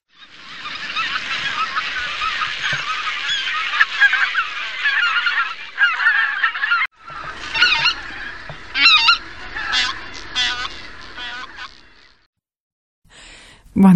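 A flock of greater white-fronted geese (Anser albifrons) calling together, a dense, yelping chorus of overlapping honks that pauses briefly midway, resumes in bursts, then fades to near silence before a final call.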